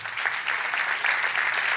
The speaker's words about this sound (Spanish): Y lo cuento para la gloria de Dios. Den un fuerte aplauso a Dios por eso.